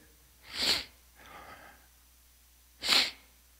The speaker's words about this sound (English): Sorry, I'm sniffling really loudly over the microphone.